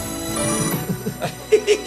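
A phone ringtone plays a short electronic melody of repeated chiming tones, clear, with a few brief notes accented near the end and faint voices in the background.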